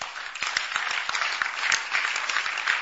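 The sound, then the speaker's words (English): An audience claps together, a dense, steady patter of many hands with sharp individual claps popping through, sustained at an even loudness for a few seconds. “Clap for Jesus.”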